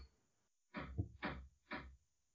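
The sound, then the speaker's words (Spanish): Three heavy hammer blows land in a quick, slightly uneven sequence, each a solid knocking thud with a short ring-off. Quiet surrounds them and no one speaks. “¿Escuchas tú el martillo?”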